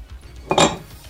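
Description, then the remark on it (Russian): A small amount of Jack Daniel's whiskey pours briefly into a glass, a short bright splash with a faint glassy ring that lasts about a quarter second against a quiet background, with no talking. “Вот, я наливаю чуть-чуть же гранился.”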